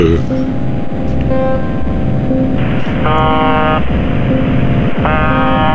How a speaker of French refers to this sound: C'est un train qui passe sur la banquise. Ouais, je sais pas, mais ça fait peur.